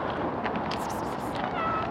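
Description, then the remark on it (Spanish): A domestic cat meows twice, short high-pitched cries rising over a steady, noisy background. “¿Con dos miau era suficiente?”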